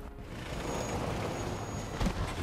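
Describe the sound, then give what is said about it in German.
A video game car rumbles loudly and steadily, a broad engine-like roar with a brief harder burst near the end as the car runs over the player's character. No one speaks. “Jetzt überlebt vom Auto überfahren, oder was?”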